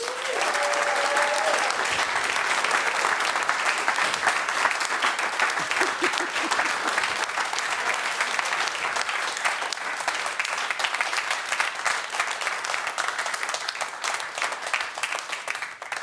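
A large show audience applauds steadily for about sixteen seconds to welcome a comedian, dense rapid clapping at a constant loud level, with a few faint whoops or shouts mixed in near the start.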